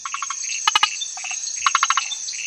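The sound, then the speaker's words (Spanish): A small polka-dot tree frog, bright green with red or white spots, gives bursts of rapid, clicky chirps in short repeated series, fairly loud, over a steady high insect-like buzz of night chorus with no talking. “La rana de zarzal vive en amplias zonas de Sudamérica.”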